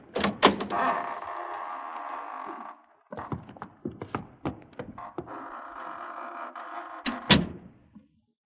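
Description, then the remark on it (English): A door creaks open slowly with a long, groaning drone, broken by a series of knocks and rattles, then creaks again before ending in a heavy thud. No one speaks. “Here we are, gentlemen, at death's private door. Shall we enter?”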